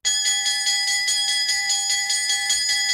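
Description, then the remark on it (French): A loud electric school bell rings continuously with a rapid, rattling trill, filling the whole stretch without pause and with no voices. “La cloche a sonné, ça signifie est à nous, que la joie vienne.”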